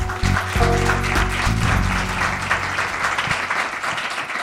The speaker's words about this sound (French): que je vous invite à applaudir chaleureusement.